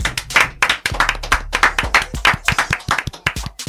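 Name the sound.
people clapping hands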